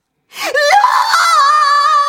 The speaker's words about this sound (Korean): 갑자기 웬 비명 소리가 들려왔어요. 너! 어? 뭐야? 여보, 당신은 들었지? 분명히 누가 비명 지르는 소리였는데? 그때 또다시 들려오는 비명 소리.